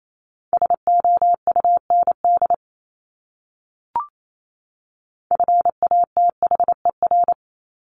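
Two fast bursts of Morse code sending common English words from a top-200 word list, a steady mid-pitched beep keyed in quick dots and dashes at about 28 words per minute, separated by a short pause with a single soft click between them.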